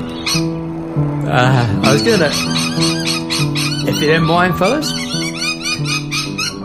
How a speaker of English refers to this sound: I was um, actually, pl- I was actually planning to drop that in a bit later, but I think that's pretty comical. I think we're gonna go with it. Um, that was the sound of the Australian uh, lorikeets